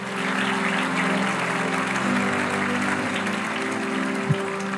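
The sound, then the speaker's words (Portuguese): A church audience applauds Jesus during a sermon at the preacher's call: a dense wash of clapping that stays loud and even throughout, with a low sustained hum running underneath. “Oh, aplauda Jesus!”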